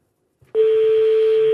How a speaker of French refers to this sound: Deuxième sonnerie.